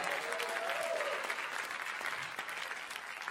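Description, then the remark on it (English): An audience applauds steadily as a morning praise offering to the Lord, dense overlapping clapping, with a faint voice or cheer briefly rising early on before the applause continues evenly. “Come on, let's give the Lord a praise offering for who He is this morning.”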